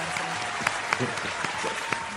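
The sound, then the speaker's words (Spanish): Steady applause from a group sending off a guest at the end of a programme, a dense run of hand claps with sharper individual claps popping out, holding at an even level for the whole stretch. “Lo despedimos con un aplauso”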